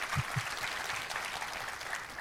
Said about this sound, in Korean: 할렐루야 우리 하나님께 감사 영광의 박수 올려드리겠습니다.